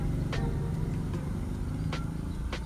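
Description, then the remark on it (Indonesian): Busy motorbike traffic outdoors: a steady, dense low engine rumble with several brief brighter whooshes as bikes pass by, continuous throughout with no voices. “oh, sorry ya ini aku tempatnya outdoor ini ya, malah ini lah menunggu ya seporan rame motor”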